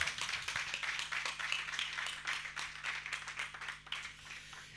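An audience applauds, many hands clapping in a dense, steady patter that holds for about five seconds before easing slightly at the end. Nobody speaks over it.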